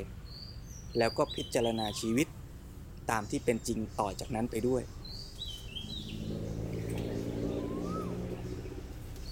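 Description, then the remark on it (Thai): Small birds chirp in short, high bursts throughout, while a man speaks calmly over them; after he stops, the chirping carries on against a low steady hum. “แล้วโยมอาจจะได้ยินเสียงนกร้องเสียงแมวร้องเสียงตุ๊กแกก็ถือเป็นการพิจารณาตามไป”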